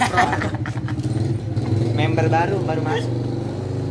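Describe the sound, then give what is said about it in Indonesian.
A car's engine hums steadily, a low droning rumble that runs under people talking for the whole stretch as the vehicle goes by. “sorry ada pokoknya baru ini mobil.”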